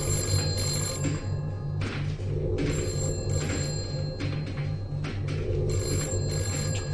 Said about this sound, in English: Wait, wait, wait, wait! That's a phone! That hasn't rung in years!